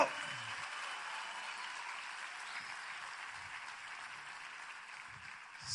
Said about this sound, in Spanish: Ahora dar el mejor aplauso que le haya dado al Señor en mucho tiempo.